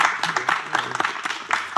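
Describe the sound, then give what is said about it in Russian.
Steady applause from a crowd, a dense, continuous patter of many hands clapping with bright, crisp bursts throughout, moderately loud and without any voices over it. “Вполне заслуженные аплодисменты.”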